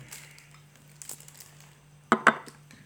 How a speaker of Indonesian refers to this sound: Maaf ya, guys, suara plastik.